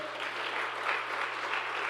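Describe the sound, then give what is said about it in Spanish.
An audience applauding loudly, a dense, steady wash of many hands clapping that holds at an even level for about two seconds with no voices rising above it. “Vamos, denle un aplauso fuerte.”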